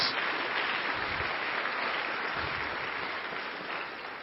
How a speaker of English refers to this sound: Uh, ladies and gentlemen, you're not going to hear it any better than that all day today. Uh, give those guys another round of applause.